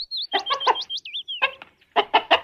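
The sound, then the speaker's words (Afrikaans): A chicken clucks in quick, close bursts, a run of short rhythmic clucks mixed with high thin chirps, then a pause and another cluster of loud clucks. No one speaks. “"Hoene!" roep hierna uit en galop met twee groot voorbene en sy klein agterbene tot by hoender.”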